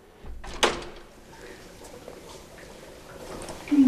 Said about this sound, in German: Vor einer der vielen Türen hält sie kurz inne, öffnet sie dann und geht hinein.